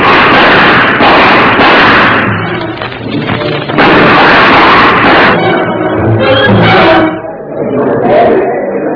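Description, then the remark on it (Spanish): Three loud, sharp pistol shots ring out at irregular intervals in the street, fired at a man running away on foot as he turns a corner, each a harsh bang with a brief ragged tail, mixed with a rough, noisy background. “Porfirio alcanzó a dispararle cuando daba vuelta en la esquina siguiente.”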